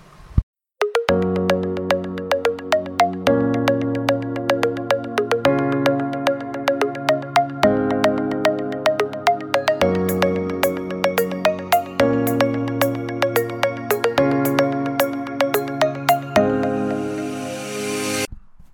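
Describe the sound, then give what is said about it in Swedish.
A loud instrumental intro jingle with a steady, punchy beat and bright chords shifting every couple of seconds, ending in a rising cymbal-like wash. No voices. “Så där låter det när min podcast börjar.”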